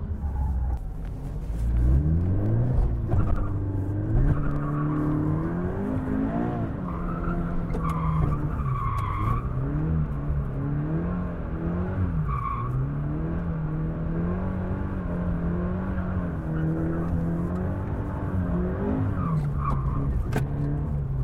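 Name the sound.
car tires skidding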